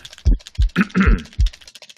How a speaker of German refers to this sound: Würfeln!